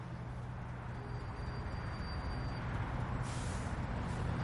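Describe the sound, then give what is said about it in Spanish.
Steady, low rumble of daytime city traffic in a US city, with a few cars passing between the tall buildings downtown, fairly quiet, and a short hissing burst near the end like a bus or truck air brake. “Son pocos los coches que pasan entre los altos edificios del centro.”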